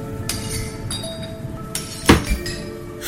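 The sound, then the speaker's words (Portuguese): Objects stored in a cellar, including a box of used clothes and old pots, being knocked over: a series of clattering knocks with bright, ringing metallic clinks, building to one loud crash followed by a smaller thud. No one speaks. “Então, tudo o que ela foi encontrando armazenado no porão, ela derrubou.”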